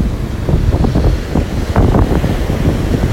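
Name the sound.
rough sea waves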